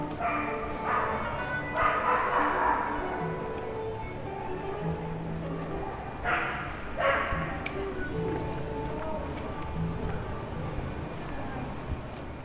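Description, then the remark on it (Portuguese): Several dogs bark in short, yapping bursts out in a city street, with a lull between outbursts, over a steady outdoor background hum and faint voices. “Agora, um sítio onde o som dos cães domina uma rua e o fado se faz ouvir fora de portas.”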